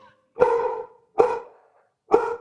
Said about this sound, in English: There they are, the singing dogs.